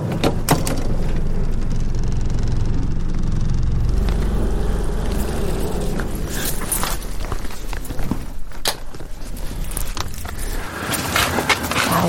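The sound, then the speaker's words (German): A boat engine rumbles steadily, then cuts out after about five seconds, leaving a quieter background with scattered clicks and knocks. “Das ist also immer, wenn dann der Motor aus ist, ist es auf einmal so unglaublich ruhig.”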